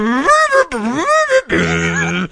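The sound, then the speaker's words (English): A voice mimics a shrill, blaring trumpet in three loud bursts: two swooping, bending wails followed by a flatter, buzzy sustained note, brash with no other sounds. “Can we imagine the score has the most annoying trumpet going?”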